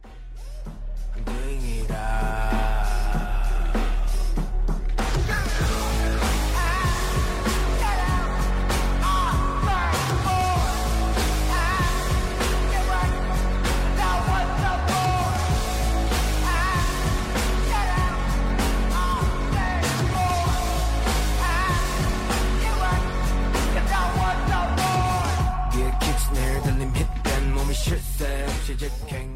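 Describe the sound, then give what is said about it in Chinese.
A heavy metal style song chorus in an American decadent punk style: after a brief quieter intro, a dense, loud wall of distorted guitars, pounding drums and deep bass kicks in beneath shouted, yelling vocals that drive on steadily. “哦哦，嗯，应该说它是重金属音乐的感觉。”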